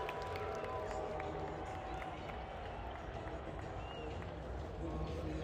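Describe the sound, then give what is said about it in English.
A large indoor arena crowd gives out a scattered, low booing as the Connecticut (UConn) basketball team comes in, over a dense, steady roar of voices that stays at an even level throughout, with no single speaker standing out. “Connecticut's coming in with a smattering of booze.”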